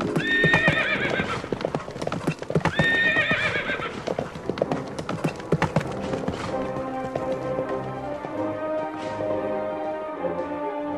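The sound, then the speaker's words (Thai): Several dozen wild horses, following a tame horse back to its owner's house, clatter in a dense, continuous clip-clop while two loud whinnies ring out early on, busy, with the galloping thinning slightly toward the end. “อยู่ๆ ก็เกิดคิดถึงบ้าน จึงได้กลับมายังบ้านของเศรษฐี พร้อมด้วยม้าป่าอีกหลายสิบตัวตามมาด้วย”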